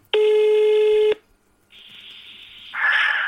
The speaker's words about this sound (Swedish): Men nu ringer vi.